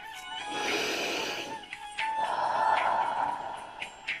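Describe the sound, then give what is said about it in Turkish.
A slow, audible breath drawn in through the nose, then after a short pause a longer, airy exhale through the mouth with a faint whistling edge, fairly soft. “Burundan nefes alıyorum ağızdan nefes veriyorum.”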